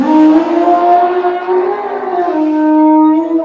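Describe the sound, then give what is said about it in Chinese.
An elephant trumpets loudly in one long, brassy blare lasting a few seconds, its pitch wavering slightly as it holds, with no voices present. “如果一些不知情的狩猎者胆敢接近小象，大象就会立刻团团围住小象，形成铜墙铁壁，并且挥舞着长鼻子和象牙，大声吼叫。”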